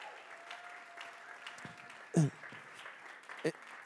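A crowd applauds in a soft, steady patter of clapping, with two sharper, louder bursts standing out near the end and a faint held tone early on.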